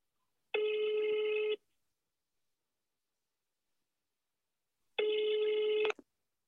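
A phone ringback tone for a call to someone in Estonia sounds twice, each steady electronic buzz lasting about a second with a long silent pause between, the second cut short by a click as the call connects.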